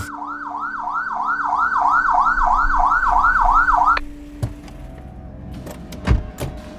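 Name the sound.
police car siren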